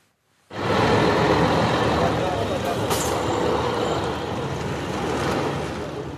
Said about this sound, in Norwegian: En buss med overlevende kjører av gårde. De klarte å komme seg helskinna over havet etter at båten deres først fikk problemer og deretter ble redda av et skip.